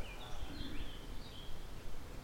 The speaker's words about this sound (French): Est-ce que tu entends les oiseaux